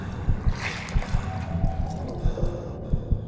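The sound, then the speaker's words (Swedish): Water sloshes and churns in uneven bursts, as if something is stirring and thrashing about in it, moderately loud with no voices. “Och det är stundtals ett skakigt ljud. Som att något gör kraftiga svängar i vattnet.”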